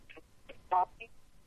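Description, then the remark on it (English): Choppy phone-line audio breaks up into a few short, clipped fragments separated by dropouts, with one louder garbled burst in the middle and faint hiss filling the gaps. “You keep cutting out. Is it, is your phone uh, have a low signal on it?”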